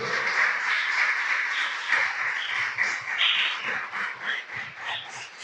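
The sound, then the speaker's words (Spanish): Steady applause from a church audience praising God at an evening service, a dense crackle of many hands clapping at once that holds fairly loud and even for several seconds, with no voices standing out. “Del otro aplauso a ese Dios poderoso a quien alabamos esta noche.”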